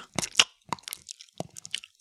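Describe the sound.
Wet, smacking chewing sounds made by a voice imitating a man chewing tobacco with an open mouth. A quick irregular series of about eight moderately loud smacks and squelches, with no talking.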